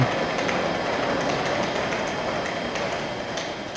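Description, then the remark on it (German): A train pulls into a main railway station (Hauptbahnhof), a dense, fairly loud wash of rolling noise with faint rhythmic clatter and no voices, easing off slightly toward the end. “Ich befinde mich gerade am Hauptbahnhof und hier soll in wenigen Sekunden ein Zug einfahren.”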